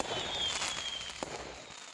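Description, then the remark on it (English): Fireworks crackle and hiss in a dense, continuous rush, with one sharper bang standing out partway through; no voices, fairly steady loudness throughout. “They would be stuffed with fireworks and they would be blown to pieces”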